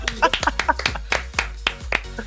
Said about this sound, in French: Ça vaut des applaudissements, excusez-moi, ça vaut des applaudissements.